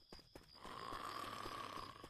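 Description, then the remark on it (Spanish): A single long, raspy snore drags on for about a second and a half after a brief quiet start, steady and fairly loud with a rough, breathy buzz and no talking. “Hoy alguien está roncando.”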